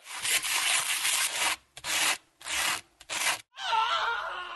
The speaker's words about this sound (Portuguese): Então, papel lixa e é folha dupla, começando por ele, papel lixa.